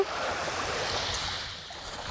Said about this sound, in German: So, und ich lasse dich jetzt nochmal mit ein paar lauschigen Wellen. Heute ist echt ein sensationeller Tag. Und du hörst schon die Wellen. Es wird lauter. Ich lasse dich jetzt einfach damit ein bisschen alleine